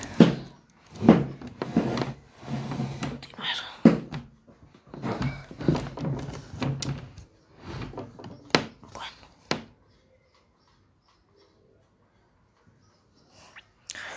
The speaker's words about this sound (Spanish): vamos me voy a acomodar tantito la silla para poder